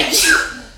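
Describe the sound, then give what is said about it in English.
A single sharp sneeze bursts out, a quick breathy blast that fades within a second, with no talking around it. “Bless you.”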